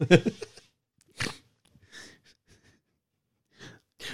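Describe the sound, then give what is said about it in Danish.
Someone blows out several hard, breathy puffs of air, short forceful bursts separated by pauses, trying to blow out a fire in a burning house. “Kan vi ikke lige prøve at puste det ud først?”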